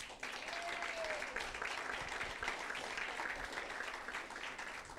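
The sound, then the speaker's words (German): An audience in the Oase applauds its own viewers, especially first-time viewers, steadily, dense overlapping clapping that stays loud and even for several seconds, with a faint murmur of voices mixed in. “Geben wir bitte unseren Zuschauern, besonders Erstzuschauern und alle, die da draußen sind, einen kräftigen Applaus bitte.”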